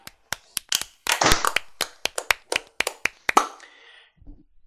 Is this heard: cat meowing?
no